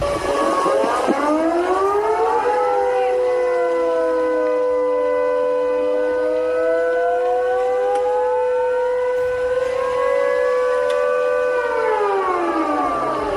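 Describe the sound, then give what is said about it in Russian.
An air raid siren in Sevastopol, switched on during a missile attack, wails steadily for the whole stretch, its tone sliding down and then rising again in a long, slow cycle. It is loud and sustained, with no voices. “Власти сообщили, что обломки упали на несколько улиц и включили сирену.”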